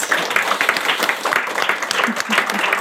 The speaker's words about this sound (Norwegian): Og det fortjener nesten en liten applaus.